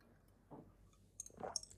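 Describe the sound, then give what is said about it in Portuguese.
A quiet sip of water: a soft mouth sound, then light glass clinks and small wet swallowing noises lasting under a second, with no talking. “Vou só dar um golinho da minha nova água.”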